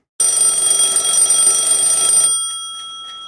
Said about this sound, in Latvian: Kas tas bija? Modinātājs. Nu, modinātājs, jā, kaut kādā ziņā, jā, bet kas tur tikšķēja? Pulkstens. Nu, jā, pulkstens. modinātājs un pulkstenis.